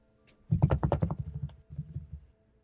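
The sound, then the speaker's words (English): A quick flurry of scuttling and rustling in a forest, like branches and leaves being pushed aside, with a rapid run of crackly bursts, a brief pause, then a softer second burst. “A scuttling noise. The sound of branches being moved, leaves.”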